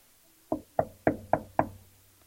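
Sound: knocking on a door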